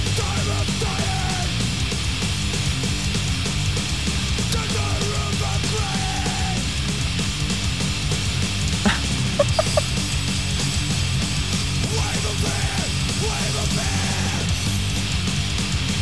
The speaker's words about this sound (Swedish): kommer få en råpunklåt. Det kommer smattra D-takt. Det kommer vrålas.